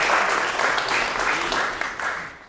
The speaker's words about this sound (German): Ja, Applaus auf jeden Fall.